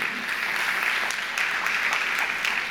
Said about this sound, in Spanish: Es un aplauso bien fuerte.